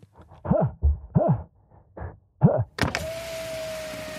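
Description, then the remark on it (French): At night out in nature, after the jeep brushes against a tree, something that caught on it lands and bounces on the jeep's roof in several quick, springy thumps, then a sudden rush of steady noise with a mechanical whine takes over. No one speaks. “Tu as entendu Nous avons frôlé un arbre et quelque chose s'est accroché à nous. Il s'est retrouvé sur le toit de notre voiture.”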